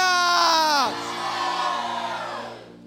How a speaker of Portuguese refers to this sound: É um grito de fé.